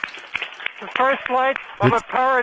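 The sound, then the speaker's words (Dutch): A team reacting as data confirming a first flight comes in: a few scattered, modest claps at the start, soon joined and partly covered by raised voices calling out in short, excited bursts. “Ze, ze klappen nog vrij bescheiden.”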